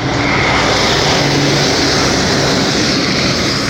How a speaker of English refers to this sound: In part because of those rattly trucks. You got those rattly trucks everywhere.